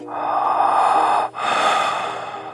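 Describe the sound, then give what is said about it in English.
A steady, breathy whoosh heard through a 3M Littmann Core digital stethoscope with Eko Core technology. It is first muffled, then after a brief break it returns brighter and clearer, enhanced 40 times at the press of a button. No voices. “With the press of a button, the sounds I hear can be enhanced 40 times from this to this.”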